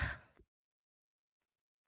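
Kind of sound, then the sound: human body sound, yawn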